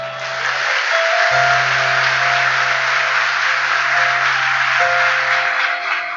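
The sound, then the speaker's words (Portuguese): An audience applauds the Lord loudly and steadily for several seconds, a dense wash of clapping that fills the space, with sustained low keyboard notes droning underneath. “Pode aplaudir ao Senhor.”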